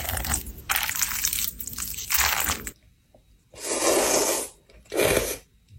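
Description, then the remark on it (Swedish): Food being stirred, ASMR-style: wet, crunchy squishing in loud bursts, a dense run of strokes followed by two separate swishes after a short pause. No voices. “Kanske inte det sista då, men just det här första, det är bara att de rör runt i maten.”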